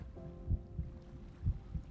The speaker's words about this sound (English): Poseidon seaweed undulates beneath me as I listen to my heartbeat steady. My breathing is long and slow and deep.